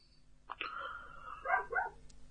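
A dog barks in one drawn-out, strained and hoarse-sounding outburst lasting over a second, moderately loud, with no one talking over it.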